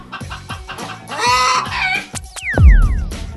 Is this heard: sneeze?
no